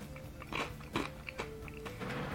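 Crisp crunching of Kameda kaki no tane rice crackers, a Shin-Enoshima Aquarium limited edition in three flavours (grilled squid mayo, yuzu bonito, salt sake), eaten one after another: a handful of sharp bites spaced irregularly, loud against a quiet background, with no one talking.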